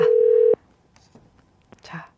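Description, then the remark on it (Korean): A loud, steady telephone tone as the third listener phone call is connected on the radio show Jung Eun-ji's Gayo Plaza, sounding for about half a second and cutting off abruptly, followed by near-silence with faint, muffled voices murmuring on the line. “자 세 번째 전화 연결 가보시죠”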